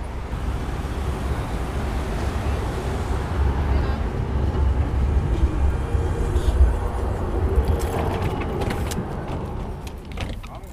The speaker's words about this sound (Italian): Uh, adesso arriva il tram.